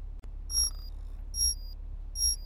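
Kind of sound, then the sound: signal or alarm, alarm clock ringing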